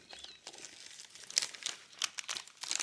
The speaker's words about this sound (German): wir versuchen mal alle ein bisschen lauter zu reden, weil das raschelt